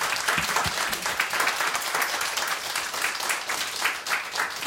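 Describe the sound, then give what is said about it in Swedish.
A crowd applauds steadily to honour a colleague on his last day, a dense wash of many hands clapping at an even, loud level throughout, with no pauses or talking over it. “Stor applåd”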